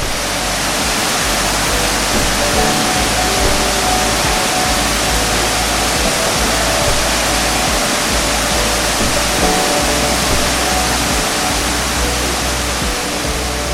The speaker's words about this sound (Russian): А теперь немного пройдем по горной тропе и спустимся к настоящему водопаду.